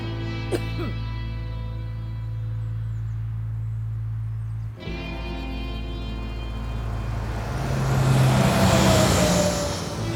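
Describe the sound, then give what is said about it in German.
A bus drives past a bus stop without stopping, a steady low engine drone giving way to a rising rush of road noise that swells loudest near the end as it goes by. “Findest du es nicht auch komisch, dass der hier nie hält, der Bus?”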